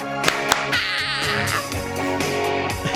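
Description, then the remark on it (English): A few sharp hand claps, two close together near the start, snap out over steady, tonal music that continues throughout. “And you got to do the clap.”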